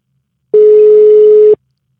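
A single steady telephone tone sounds for about one second, loud and clear with abrupt start and stop, as a radio program connects a phone call to a guest, surrounded by silence.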